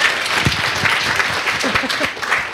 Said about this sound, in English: Yeah, um, yeah, clap for yourselves, please.